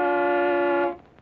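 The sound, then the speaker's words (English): A single sustained car horn blast, loud, holding steady for nearly a second before cutting off abruptly into quiet background noise. “Anyone would know that that's an automobile horn.”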